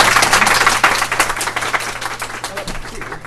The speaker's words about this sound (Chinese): 好，大家掌声有请吕秋老师。